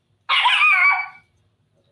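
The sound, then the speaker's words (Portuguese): A female dog lets out one loud, drawn-out bark lasting about a second, followed by quiet. “Ai, gente, eu não consigo ter paz com essa cachorra.”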